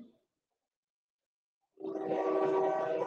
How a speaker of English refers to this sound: Is that a train behind you?